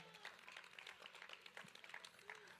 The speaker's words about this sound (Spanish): Dele un aplauso fuerte al Rey de la Gloria.